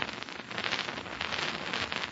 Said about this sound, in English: And as we join Terry in the big log cabin room for the crackling fire, he's talking to Dude Hennick, the pilot.